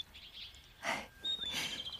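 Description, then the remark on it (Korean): Small birds chirp outdoors in a rooftop garden with trees on a building, in short, bright bursts, with a thin whistled note and a trilling call rising over a soft background hush. There is no talking. “나무도 있고, 새소리까지 들리고.”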